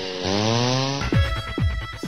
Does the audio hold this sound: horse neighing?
no